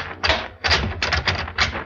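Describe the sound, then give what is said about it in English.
Someone rattles the handle of a locked back door with a glass panel in a series of quick, clattering jiggles, four or five bursts of metallic knocking, with no one speaking. “It's locked, isn't it?”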